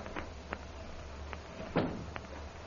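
A door is opened and shut, giving a few soft latch clicks followed by a slightly heavier knock, all fairly quiet against a low background hum with no talking.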